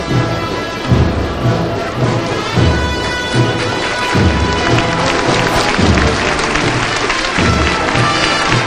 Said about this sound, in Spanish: rompe los aplausos del trabajo de la cuadrilla costalera, de la gente que se agolpa en Bernabé Soriano.